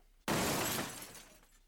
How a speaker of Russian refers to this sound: Но однажды его машинка сломалась. В очередной гонке в мега-гараже она вылетела с трассы и упала, а колеса отлетели в разные стороны.